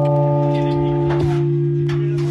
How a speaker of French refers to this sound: Oui, et il était évidemment là hier, le carillonneur, pour entendre le premier son du bourdon rénové.